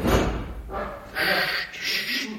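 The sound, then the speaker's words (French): A door slams shut with a heavy, low thud, followed by a couple of softer bursts of rattling, shuffling noise. “La porte, la porte. Chut.”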